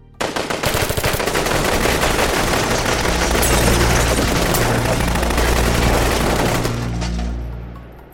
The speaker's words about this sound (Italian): Le armi da guerra del comando sparano l'impazzata, centinaia di colpi che tracciano nell'aria scie di fuoco